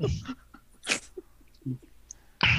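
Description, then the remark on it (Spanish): Sharp, explosive sneezes burst out, a couple of forceful blasts separated by quieter breathy pauses and faint murmurs. “Jesus. Mocos. Jesus.”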